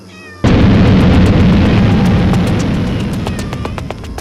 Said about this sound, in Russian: Кота-пчелы дребезжат крыльями и с боевым мявом преследуют меня.